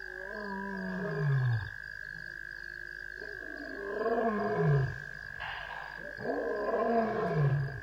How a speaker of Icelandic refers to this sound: Í fjarska heyrðist ljón öskra. Öskrin urðu háværari og skeppnurnar virtust færast nær. En svo hættu hljóðin skindilega.